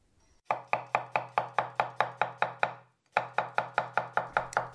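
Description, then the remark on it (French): A knife chops steadily on a kitchen cutting board, crisp, in a quick even rhythm of about five strokes per second, pausing briefly midway before another run of chops. “Eh bien, c'est quelqu'un qui coupe quelque chose sur une planche à découper de cuisine, n'est-ce pas C'est bien ça.”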